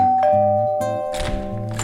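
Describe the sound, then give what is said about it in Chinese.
A doorbell chimes, ringing a clear two-tone ding-dong with bright sustained pitches that ring out and overlap, followed by a second ringing chime; no one speaks. “过没多久，门铃又响了。”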